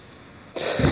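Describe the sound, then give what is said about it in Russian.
After a moment of near silence, one abrupt, loud sneeze bursts out, a sharp hissing blast that carries on to the end. “Будь здоров.”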